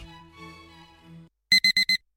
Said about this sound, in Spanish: Pasarse al Seat León híbrido con Seat Flex es tan fácil como posponer la alarma.